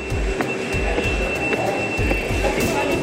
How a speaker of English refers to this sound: I'm going to walk through this door. It's still inside the um, Oculus World Trade Center train station.